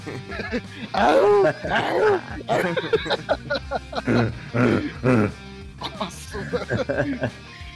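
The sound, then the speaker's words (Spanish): A person imitates a howl with a voice that swoops up and down in drawn-out pitch arcs, fairly loud, followed by a few shorter vocal bursts. “Aúllale como si estuvieras apareándote.”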